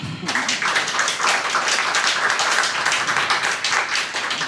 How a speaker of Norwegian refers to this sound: Så en applaus for dere òg.